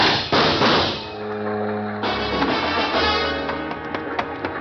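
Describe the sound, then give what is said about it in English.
Two loud gunshots fired on a deck in a harbor, one near the start and another about halfway through, each ringing out over a steady low droning hum, with scattered smaller knocks afterward and no voices. “What spoke loud enough for me to hear was a gun.”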